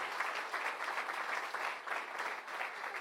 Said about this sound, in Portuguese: Vamos aplaudir, queridos?